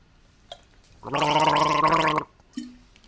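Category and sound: human body sound, drinking water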